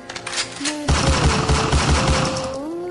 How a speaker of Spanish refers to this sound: Al encontrarse frente a frente, el hombre sorprendió a Gandhi con tres disparos a quemarropa en el pecho.